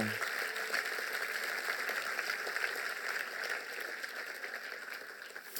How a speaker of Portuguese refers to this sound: Será que podemos dar uma salva de palmas a Deus por fazer o que é impossível?